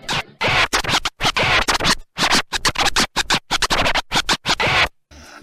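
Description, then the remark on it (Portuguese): A record being scratched back and forth on a turntable in quick, rhythmic bursts, each a loud, harsh swish, repeating for about five seconds with brief gaps between strokes. “Vou tocar música, gigante. Vamos lá? Movimento a vitrola, vai.”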